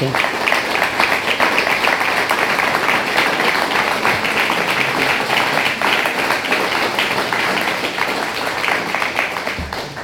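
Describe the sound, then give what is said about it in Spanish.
Sustained audience applause, a dense crackle of many hands clapping at steady loudness for about ten seconds, with no single claps standing out. “Les damos también un fuerte abrazo, abrazo y un fuerte aplauso.”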